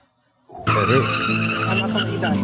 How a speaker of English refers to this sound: So they actually play this a, a couple times. Are they putting tires screeching sounds in the background?